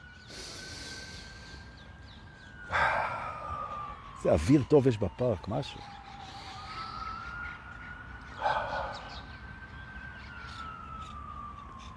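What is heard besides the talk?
emergency vehicle siren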